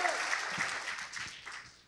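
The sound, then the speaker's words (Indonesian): A crowd applauds for God, steadily, a dense wash of many hands clapping at a fairly even level, with a few individual claps standing out briefly. “Jadi tepuk tangannya jangan nanggung.”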